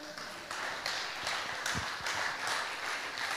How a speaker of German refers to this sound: Okay, nochmal ein Applaus für Sophia.